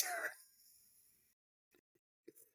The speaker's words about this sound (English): So, you guys, I was coughing. I had to cough.